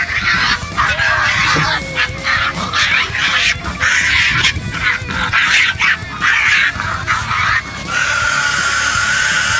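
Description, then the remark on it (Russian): A Tasmanian devil, a small animal about the size of a pug, screaming: loud, harsh, raspy shrieks and growling cries in rapid, overlapping bursts that continue for nearly ten seconds, with no talking. “есть такое маленькое животное – тасманский дьявол”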